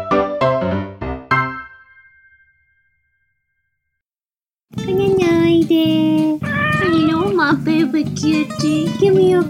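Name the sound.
cats meowing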